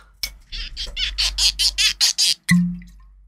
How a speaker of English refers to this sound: I don't have a, a can to open this time around. I've got a bottle I can pop the cork for you.